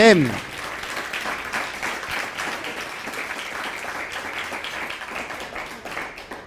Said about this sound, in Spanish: Cami Quejilá Mundial les da la bienvenida y abrazamos a las naciones con un fuerte aplauso. Por favor, hacia todas las naciones.